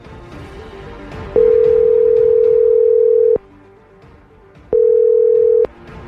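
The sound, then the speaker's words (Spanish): A steady telephone tone sounds twice, a long mid-pitched beep of about two seconds and then a shorter one, both loud over a soft, busy background of music, as a radio program dials a caller's fiancé. “Vamos a marcarle a tu prometido y te deseamos que pase lo mejor.”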